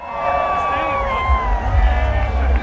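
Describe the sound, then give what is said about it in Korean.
A large outdoor crowd of Washington Capitals fans at the championship parade on the National Mall in Washington cheers and whoops as a double-decker bus carrying the players passes, shrill voices overlapping in a dense roar with low rumbling noise underneath, steady and loud throughout. “선수들을 태운 2층 버스가 지나가자 환호성을 지르기도 했죠.”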